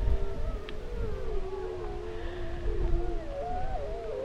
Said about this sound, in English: We wait for several minutes, then off to our right, on a tree covered ridge, wolves begin to call.